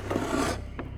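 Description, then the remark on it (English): A key is slowly turned and a wooden drawer scrapes open with a rough, rasping slide for about half a second, followed by a brief, sharp click. No one speaks. “Then I slowly turned the key and pulled the drawer open.”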